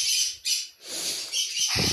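Shrill, overlapping bird calls, loud harsh squawks mixed with rapid chirps, fill the whole clip in dense bursts with brief dips between them, and no one speaks.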